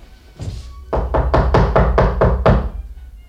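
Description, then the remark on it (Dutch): Firm knocking a second time on the wooden door of flat number 3: a single knock, a brief pause, then a quick, steady run of about seven more solid thuds, fairly loud, with no voices. “Misschien heeft hij niet gehoord. Klopt nog eens”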